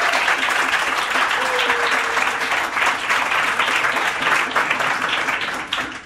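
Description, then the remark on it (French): An audience applauds the event's crew steadily, a dense, even wash of many hands clapping at once, sustained throughout and tapering slightly at the very end, with no talking over it. “Donc je voudrais qu'on les applaudisse parce qu'ils étaient avec nous pendant ces 4 ans, et c'était vraiment des, des chevilles ouvrières incroyables de cette édition.”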